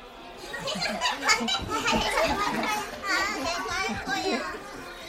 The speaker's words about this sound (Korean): 키즈 카페에 도착해 입장료를 계산하는 동안 카페 안에서는 동요와 아이들이 뛰어다니는 소리, 애들의 이름을 부르는 엄마들의 목소리가 튀어나왔다.